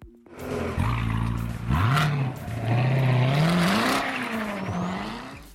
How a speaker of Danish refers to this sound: Altså, det er ikke den Corvette, som Jan kører racerløb i, men det er en Corvette. det er rigtigt. Det er en Corvette.